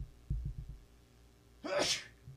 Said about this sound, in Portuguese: Pode eu dar uma espirrada, só um minuto.